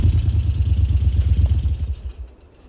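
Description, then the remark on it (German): A motorcycle engine on a dirt track, kicking up brown dust, throbs with a deep, pulsing rumble, loud, then quickly fades away after a couple of seconds; no voices are heard. “bevor das Motorrad in der Ferne auftauchte, konnte Galzan bereits die braunen Staubfahnen sehen, die es auf der Piste aufwirbelte”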